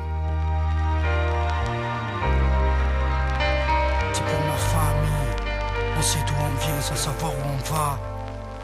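A rap track plays loud and close throughout, with a deep sustained bassline, layered synth tones and a rhythmic rapped vocal delivered over the beat.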